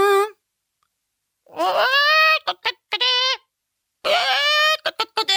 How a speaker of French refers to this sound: Ils ont balancé une poule cette fois dans une poubelle sur le lopin de terre, une pauvre petite poulette tout apeurée, la crête, pendouillante, le regard perdu.